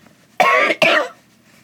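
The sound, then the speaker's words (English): A man coughs harshly twice in quick succession, loud rasping bursts, strained like he's starting to retch, as he coughs up dirt from his lungs after gargling river water in a shaded riverbed, followed by quiet. “Once his body coughed up the dirt in his lungs and vomited, it began to move the filth from his system.”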